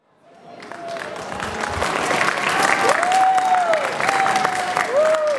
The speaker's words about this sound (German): Dass sie Applaus von Einheimischen bekommen, damit hätten die Menschen wohl nie gerechnet, die da gerade aus dem Zug steigen, am Gleis 26 am Münchner Hauptbahnhof.